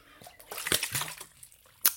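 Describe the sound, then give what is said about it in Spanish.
Someone takes a big, noisy, dramatic drink of Vitautas mineral water from Estonia, in Riga, with sloshing and a few wet gulps and slurps, then a sharp splashy burst at the end. “Algunos bebida dramática de agua.”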